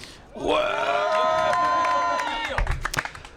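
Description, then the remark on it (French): A live show audience erupts in loud cheering and whooping, many voices rising into a sustained shout for about two seconds, then breaking into scattered claps and calls. “Euh, mais nous aurons encore d'autres plaisirs, comme la présence de public en délire.”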